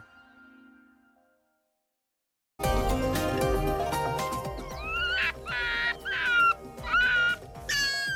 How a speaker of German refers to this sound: Und wer kreischt hier? Nein, keine Möwe, auch kein anderer Vogel, sondern ein Fuchs, ein Polarfuchs. Der streift mit seinem dicken Fell durch Nordskandinavien, aber vielleicht nicht mehr lange.